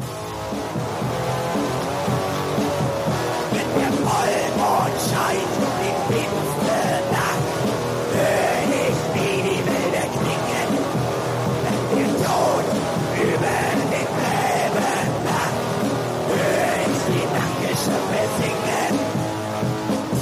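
A black metal recording: a dense, steady wall of distorted guitars and pounding drums under harsh, shrieking screamed vocals, loud and unrelenting for the whole stretch.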